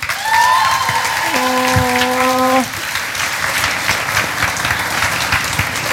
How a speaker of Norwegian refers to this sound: Applaus igjen, da.